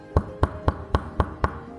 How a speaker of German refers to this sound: Knotbert atmete tief durch und klopfte entschlossen an.